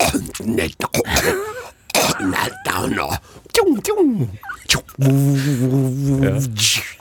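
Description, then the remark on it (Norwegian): A person makes a series of harsh, raspy hawking sounds from the back of the throat, pressing the tongue back toward the pharynx to demonstrate pharyngeal speech sounds, with gurgling rises and falls, ending in a sustained guttural, buzzing throat sound. Fairly loud. “Og så kan vi gå tilbake til, eh, til svelget, for du har jo språk da man presser tunga bakover.”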